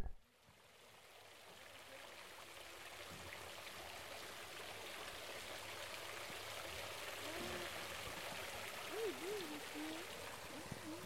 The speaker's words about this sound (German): Hier beschreibt … einen besonders geformten Brunnen.